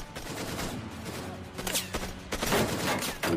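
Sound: gunfire volley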